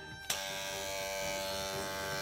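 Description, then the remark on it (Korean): A nose hair trimmer, used to shave the nose hair before sinus surgery, switches on with a sharp click and settles into a steady, loud electric buzz, a dense motor whine with bright harmonics that holds unbroken to the end, with no talking. “이게 이제 코털 깎는 소리예요.”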